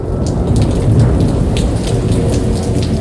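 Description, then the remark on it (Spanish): A sudden heavy downpour on the outskirts of Jaén roars steadily throughout, with a deep rumble of thunder rolling underneath and scattered sharp raindrop hits on top. No one speaks. “Yo estaba llegando a las afueras de Jaén cuando se cayó un aguacero y tuve que buscar un refugio dentro de una pequeña hospedaje.”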